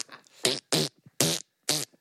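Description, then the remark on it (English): A mouth-made fart noise, four short buzzy raspberry bursts blown in a steady rhythm, fairly loud, with brief silences between them and no talking. “A fart noise.”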